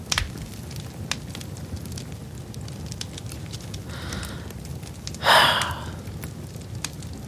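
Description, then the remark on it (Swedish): A fireplace fire crackles steadily, with scattered sharp pops over a low rumbling bed and a brief louder hissing flare near the end. No one speaks. “det här är ju som TV-brasan fast i radio”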